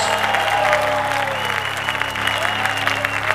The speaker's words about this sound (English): Let's clap for the King of Kings. And the Lord of Lords.